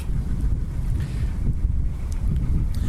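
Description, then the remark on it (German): Wind blows steadily on the beach at Lake Mondsee, buffeting the microphone with a loud, continuous low rumble that swells and eases slightly, with faint outdoor water ambience beneath and no voices. “man hört, es ist momentan ein bisschen windig am Mondsee.”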